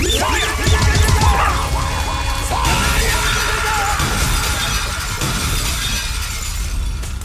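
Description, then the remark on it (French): Loud crashes of window glass being smashed, with a quick cluster of ringing shatters early on, followed by a steady rush of scattering shards and rumbling noise that lasts to the end. “il manque encore quelques vites à péter. Celle-là aussi. Et celle-là.”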